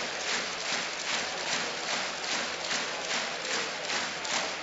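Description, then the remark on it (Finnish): An arena crowd at Helsinki's arena claps in a steady rhythm toward the referees while a video review is underway, many hands striking together in regular beats about four per second, loud and continuous with a broad crowd roar underneath and no talking. “Yleisö hakee vähän painetta rytmikkäillä taputuksillaan tuonne tuomareiden suuntaan.”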